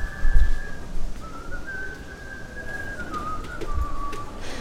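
A single whistler carries a slow, wavering tune in long sustained notes over a steady wash of indoor crowd noise with occasional soft thumps, inside stores during Sunday sales, where people meet as passing customers and whistle.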